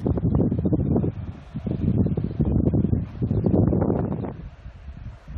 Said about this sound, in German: Vom Westen her kommt das hellere Wasser der Tasmansee, der Pazifik ist dunkler und strömt von Osten heran. Das Meer ist rau und der starke Wind hält es in ständiger Bewegung.